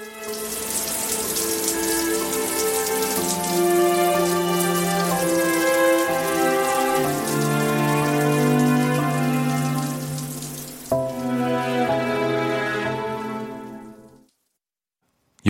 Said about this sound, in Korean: 남자는 수압을 최대한 높이고 쏟아지는 물줄기에 앙상한 몸을 숨긴다.